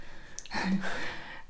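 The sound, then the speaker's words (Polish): A single deep, breathy inhalation lasting about a second before trailing off into quiet. The person takes it after speaking on a single exhale without breathing for about 45 seconds. “nie jestem w stanie wziąć wdechu.”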